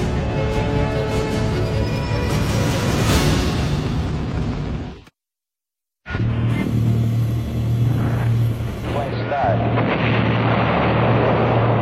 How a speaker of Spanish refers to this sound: Comienza la misión del Apolo 11 hacia la Luna, dejando tras de sí una explosión provocada por los cinco motores F-1, considerada el mayor sonido producido por el hombre por detrás de la bomba atómica.